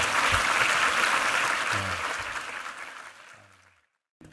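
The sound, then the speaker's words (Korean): An audience claps together in dense, steady applause of thanks and glory to God, which gradually thins and fades out over a few seconds, ending in near silence with a brief sound at the very end. “우리 하나님께 감사, 영광의 박수 올려드리겠습니다.”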